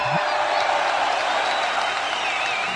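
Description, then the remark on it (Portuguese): A dense wash of applause fills the whole moment, steady and fairly loud, like a group clapping together with no pauses and no distinct individual claps standing out. “Uma salva de Se palmas.”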